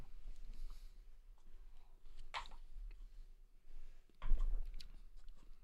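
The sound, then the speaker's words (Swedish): Someone swallows a sip of Nynäshamns Spinnaker Session IPA beer: a couple of short, wet gulping sounds separated by quiet moments, with no talking. “Vad gott det lät när du ja. svalde Helt sjukt um, faktiskt.”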